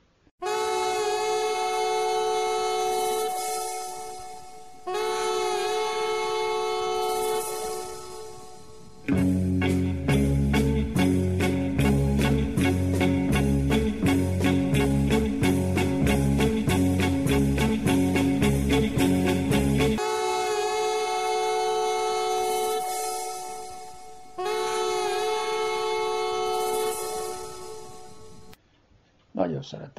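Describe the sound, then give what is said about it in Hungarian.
A diesel locomotive, the type called Kennedy, sounds its loud, sustained multi-tone horn in long blasts, with a heavy rhythmic rumble and clatter of the passing train in the middle stretch. “Pláne, mikor ména a Kennedy ez a dízelgép, akkor ráhúz a jó szirénája neki.”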